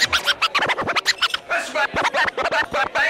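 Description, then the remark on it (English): Vinyl record scratching on a turntable: loud, rapid back-and-forth scratches in a choppy, rhythmic stream of bursts, with no talking over them. “Moving back and forth. Scratching on the turntable.”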